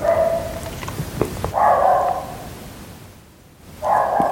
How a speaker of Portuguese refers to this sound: por isso, já e voltaram a ladrar os cães. Fazem, tão loucos.